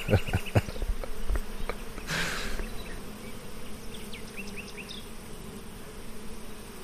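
A gentle honeybee from a beekeeper's bees buzzes steadily around a person, a continuous low droning hum that rises briefly in intensity, with faint chirps and clicks in the background and no voices.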